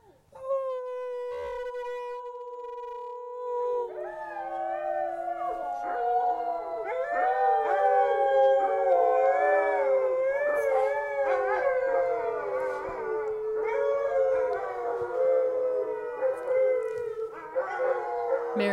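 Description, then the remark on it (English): Several dogs in a backyard in Fairbanks, Alaska howl together in a sustained chorus, starting with one or two long wavering tones and swelling into many overlapping howls that rise and fall, loud. “Usually they howl after dinner, kind of as a thank you, and we, they haven't just had dinner, so I don't know if they'll howl,”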